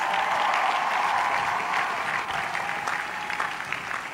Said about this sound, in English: But thank you very much for all the great work that you have done. Let's give the parents and the families a big hand of applause.